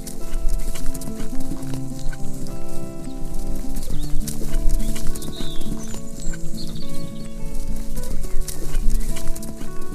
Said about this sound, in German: Dein Bauch kribbelt vor Glück, während ihr durch den sommerlichen Wald galoppiert.